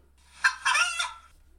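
A rooster crows once, loud, a strained rising-then-falling call lasting about a second, with no talking around it and only quiet before and after.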